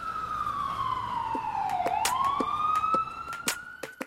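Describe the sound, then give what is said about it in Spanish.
An ambulance siren wails loudly as the ambulance arrives in a residential neighbourhood, its pitch sweeping down and then climbing back up, continuous, with scattered sharp clicks and knocks over a faint street background. “la ambulancia llega con la sirena a todo dar y despierta a todos los vecinos.”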